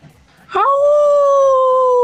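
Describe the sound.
A person imitates Aqueloba's wolf howl: one loud, sustained tone that rises sharply, then holds steady and drawn out, after a brief quiet start.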